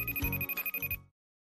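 An outgoing phone call's ringing tone, calling the speaker's dad, plays once for about a second, a steady high-pitched electronic tone with a fast pulsing flutter, then cuts off into silence. No one speaks.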